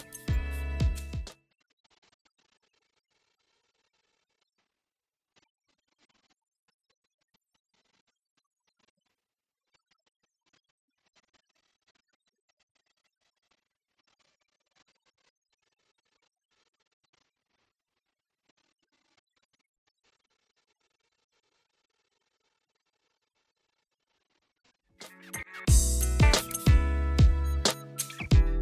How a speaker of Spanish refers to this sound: Para realizar esta grabación hemos utilizado lo siguiente. Un amplificador de guitarra Roland, que se colocará a la izquierda. Un amplificador de guitarra Fender, que se coloca a la derecha. Un micrófono para el mid de patrón polar cardioide.